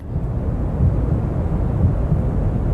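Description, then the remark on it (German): Steady, dense white noise from a recording on Spotify, weighted toward a deep rumble, with a faint, slow heartbeat mixed in underneath roughly once a second. No voices. “Bisschen Herzschlag im Hintergrund ist da noch drunter gewischt, ansonsten aber einfach nur Rauschen.”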